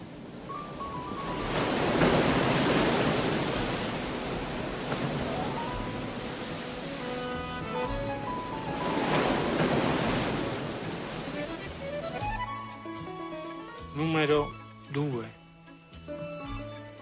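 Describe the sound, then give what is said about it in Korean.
Small sea waves wash gently into a cove on Capri island, recorded by the postman Mario in a scene from Michael Radford's film Il Postino: two soft swelling surges rising and receding with a steady hiss, followed near the end by a few brief spoken sounds. “Onde alla cala di sotto. Piccole.”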